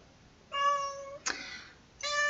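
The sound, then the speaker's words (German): A cat meows loudly and insistently, three drawn-out, tonal cries in quick succession, with no one talking over them. “Oh mein Gott, diese Katze.”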